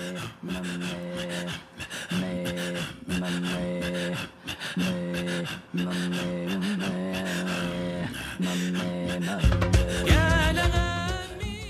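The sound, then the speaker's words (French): Inuit throat singing: steady rhythmic pulses of deep voiced tones alternating with raspy, breathy panting sounds, repeating in a tight loop before rising into higher, wavering vocal notes at the end. “Ça, c'est un chant de gorge”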